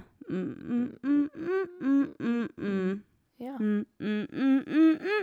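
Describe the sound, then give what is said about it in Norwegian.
A singer's voice makes a series of short, creaky vocal-fry hummed syllables on M, about a dozen rhythmic pulses with a brief pause midway, fairly loud, each with a low buzzy rasp. “Og så gjør jeg sånn mm, mm, En sånn knirk på M.”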